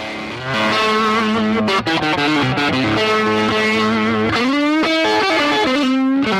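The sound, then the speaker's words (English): An overdriven Strat electric guitar plays sustained chords and bending notes through a stereo Twilighter amplifier, loud, with thick distortion and a brief pause midway. No one speaks. “we're gonna try the stereo Twilighter now. Let's take a listen to this.”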